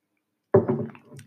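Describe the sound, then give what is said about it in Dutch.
A quick sip from a drink: a sudden soft slurp and gulp after a moment of silence, followed by a fainter, short trailing swallow. No voices. “Maar deze podcast, en ik neem dus weer een slok.”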